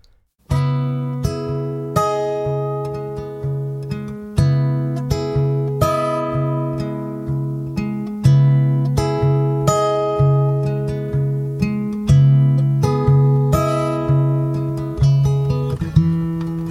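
A country rock song plays, its instrumental opening built on bright, sustained chords struck in a steady, even rhythm, with a held bass note underneath and no singing yet.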